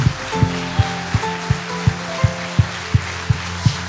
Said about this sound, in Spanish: Vamos, póngase en pie y siga aplaudiendo al Señor. Vamos, siga aplaudiendo como si estuviera en la orilla del horno de fuego.